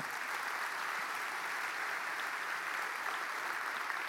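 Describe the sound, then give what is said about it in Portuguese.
An audience at a Christian morning worship service applauds the Lord Jesus steadily, a dense, continuous wash of many hands clapping at an even level from start to finish with no voices standing out. “Quem pode dar um aplauso ao Senhor Jesus dessa manhã?”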